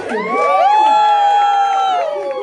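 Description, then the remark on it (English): A loud burst of crowd cheering for a woman performer, with many overlapping voices whooping and shouting in sustained high-pitched cries that hold steady for a couple of seconds before starting to taper off. “Make some noise for her.”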